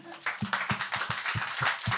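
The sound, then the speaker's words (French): Audience applause, a steady wash of clapping with a loose, rhythmic beat running through it, sustained for the whole moment, with no one speaking. “Il y a de la fatigue dans vos applaudissements, je vais arrêter.”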